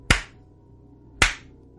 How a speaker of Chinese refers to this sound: 又是两声清脆的巴掌声